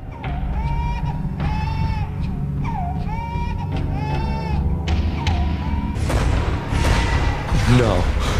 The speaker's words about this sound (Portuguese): Depois, a dada altura, começamos a ouvir um bebê a chorar.